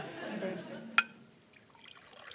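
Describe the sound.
Water is poured into a glass, a sharp clink of glass followed by a soft, trickling splash, fairly quiet and close, with faint voices murmuring in the background.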